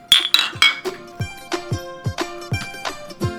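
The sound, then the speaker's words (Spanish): Glasses clink together in a toast, a quick flurry of bright ringing taps followed by several softer, evenly spaced clinks with lingering tones, fairly quiet, no talking. “Pues empecemos. Salud. Salud.”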